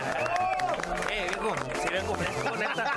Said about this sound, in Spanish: fuerte el aplauso por lo que se oiga.